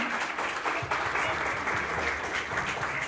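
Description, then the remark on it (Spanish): Loud, sustained audience applause fills the whole moment, a dense crackle of many hands clapping at once, steady in volume with no pauses and faint voices mixed in underneath. “Démosle otro fuerte aplauso.”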